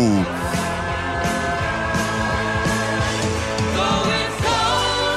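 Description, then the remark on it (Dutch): A loud, dense 1978 rock song, a big hit from a bombastic album, plays steadily, with driving drums and thick layered instruments filling the sound in a big, bombastic arrangement. “Je hoort zijn grootste hit uit 1978 van het eh, op dat moment baanbrekende, bombastische album …”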